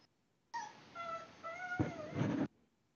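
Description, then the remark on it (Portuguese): A pet dog whimpers and whines for about two seconds, a series of high, wavering, drawn-out cries that grow noisier toward the end, with no talking. “Ah, quem tá chorando aí? É, tem alguém querendo participar da live aqui.”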